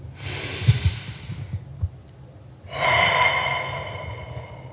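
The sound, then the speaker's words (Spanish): A slow, deep breath drawn in with an airy rush, a brief pause, then a long, audible exhale with a slight sighing tone, fairly loud with no talking. “Tomar un momento para respirar.”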